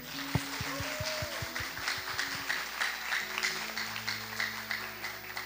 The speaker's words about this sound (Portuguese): Então você pode, de coração, novamente, honrar ela com a salva de palmas.